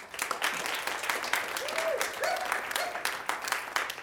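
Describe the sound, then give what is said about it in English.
An audience applauds steadily, dense overlapping claps sustained for several seconds, with a few faint voices mixed in. “another hand, please.”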